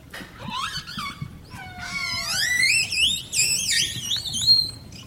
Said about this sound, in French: Là, on a les sifflements des orques. On a aussi des, clics et des buzz qui sont un peu différents. Donc les sifflements euh, des orques, par exemple, ils ont été euh, beaucoup étudiés, notamment en Colombie-Britannique.